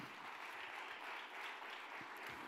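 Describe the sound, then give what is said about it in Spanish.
Loud, sustained applause from a crowd, a dense steady clatter of many hands clapping for a couple of seconds with no voices standing out. “Vamos, denle otro aplauso fuerte.”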